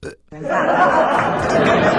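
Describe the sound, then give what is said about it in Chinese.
Someone imitates a burp with their voice as a demonstration of vocal mimicry: a brief sound, a short pause, then one loud, drawn-out, croaky belch that holds steady for well over a second. “我给你随便说个声，我给你学一下，比如说打嗝儿，”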